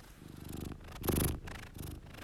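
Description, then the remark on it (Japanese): A cat named Chii-chan purrs softly and steadily while very sleepy, a low rhythmic rumble pulsing with each breath, fairly quiet, with no talking. “今日はちいちゃんは眠すぎて、ゴロゴロ音がちょっとちっちゃめですね。”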